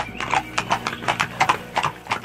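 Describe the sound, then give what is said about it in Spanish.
Steady, rhythmic clip-clop of horse hooves pulling a carriage, a run of sharp hollow knocks in an even trotting pattern over a low rumbling background. “Cuando el carruaje pasó por la cercanía del sitio exacto en que el joven se bañaba”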